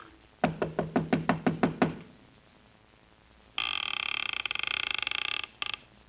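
About eight firm, evenly spaced, loud knocks on a wooden door in a sleepy little town in Sonora, Mexico, followed after a pause by an electric bell ringing steadily for a couple of seconds.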